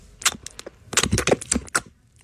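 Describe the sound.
A voice on a radio show imitates a reptile's flicking tongue: a quick, uneven run of about eight sharp, crackling mouth clicks and hisses, fairly loud, with no words spoken.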